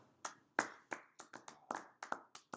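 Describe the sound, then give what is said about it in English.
Audience clapping for a guest about to sing a Christmas carol: a short burst of about a dozen sharp, uneven claps from what sounds like a small group, loud and crisp with no voices over them. “Can we get a, can we get a clap for”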